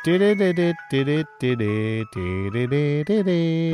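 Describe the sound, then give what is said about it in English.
A single voice sings the bouncy ice cream truck jingle, its short, clipped notes rising and falling in a quick tune with brief gaps between phrases. “When I hear ice cream truck, I hear one song.”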